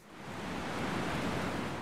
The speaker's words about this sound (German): Der Wind weht kräftig um den 83 Meter hohen Bohrturm bei Windisch-Eschenbach.